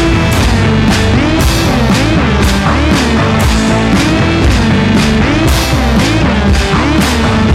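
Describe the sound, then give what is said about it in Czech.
A loud rock song, a band's new single, plays continuously, with dense distorted guitars, a driving drum beat hitting in regular bursts, and a full, steady mix filling the whole stretch. “a teď teda vychází nový album a mají uh, nový single, a ten single zní takto.”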